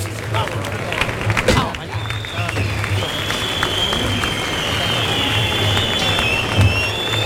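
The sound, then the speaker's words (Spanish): A bullring crowd at a bullfight applauds steadily in a dense wash of clapping after Antonio Ferrera has withdrawn, while thin, sustained protest whistles cut through above it in long, high streaks. “Bueno, hay aplausos y alguna protesta, algún pito una vez que se ha retirado Antonio Ferrera.”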